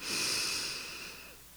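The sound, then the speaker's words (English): A single slow, deep breath drawn in through the nose, airy with a soft hiss that swells early and gradually tapers off. No one speaks. “So breathing in”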